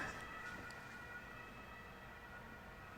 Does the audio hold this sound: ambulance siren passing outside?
yes